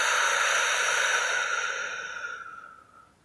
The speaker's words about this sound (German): Wir atmen nochmal gemeinsam ein. Die Luft kurz anhalten. Und wir atmen gemeinsam wieder aus.